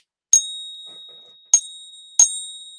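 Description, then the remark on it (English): Three bright metallic pings from American Silver Eagle coins ring out, each a sharp strike followed by a long, high, sustained ring that slowly fades, the second and third coming close together. No voices. “with the ASEs, and that was that was crazy because the two different sounds.”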